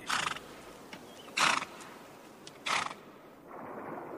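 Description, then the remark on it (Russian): A horse neighs in three short, evenly spaced loud bursts, with quiet background noise in between and no voices. “Конь пришельца, привязанный к столбу, мирно щипал траву.”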